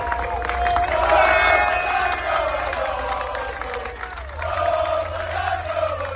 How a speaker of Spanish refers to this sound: Todo el equipo de Aston Martin gritaba aquello de Fernando Alonso, Fernando Alonso